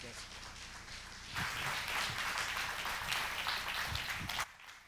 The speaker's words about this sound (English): So let's give God the hand clap. Let's give God a hand clap what He's doing in the in the Bridge Church.